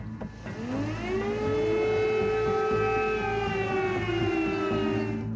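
An air raid siren during the war in Ukraine wails steadily, its long tone rising and then holding in a sustained drone, loud and continuous over low background rumble, with no voices.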